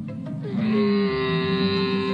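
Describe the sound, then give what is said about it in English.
A camel lets out a long, loud, droning groan, a rough gurgling start settling into a steady, sustained moan, with no one talking. “No, what animal is it? Camel absolutely right.”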